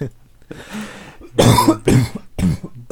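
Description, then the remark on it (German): A loud bout of coughing: a few harsh, forceful coughs in quick succession, preceded by a breathy rasp, with no speech. “Gesundheit.”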